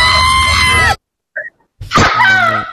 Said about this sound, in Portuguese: Um grito da …, que eu ainda tô com um soundboard antigo